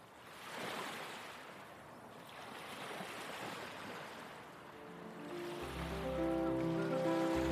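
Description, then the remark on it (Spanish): Ocean waves wash onto a beach in a steady, rushing surge of surf. In the last couple of seconds, sustained musical tones rise in over the water. “pasa el día jugando con sus hermanos y hermanas en la arena, viendo las olas que vienen y van.”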